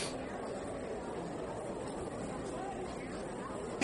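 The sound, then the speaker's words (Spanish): A dense, steady babble of hundreds of voices talking among themselves fills an immense university building after a siren and doors opening, a continuous crowd murmur with no single speaker standing out. “Se escucha el clamor de cientos de voces que hablan entre sí”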